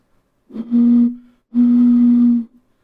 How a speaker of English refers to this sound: was that a lonely train